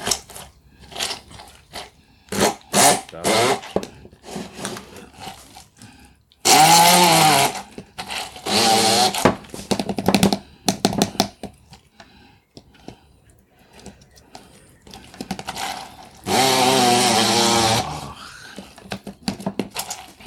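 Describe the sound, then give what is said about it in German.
A blender roars in a few loud bursts of a couple of seconds each, its whining motor pureeing cucumber, cress and garlic at high power, with clattering and knocking sounds in the gaps between runs. “vor dem Pürieren oder nach? Nach dem Pürieren und dann okay.”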